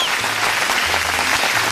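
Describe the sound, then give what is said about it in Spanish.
An applause sound effect: dense, steady applause fills the whole moment, a constant crackle of many hands clapping at once, loud with no pauses or voices. “Te lo ganaste, Giancarlo, los aplausos.”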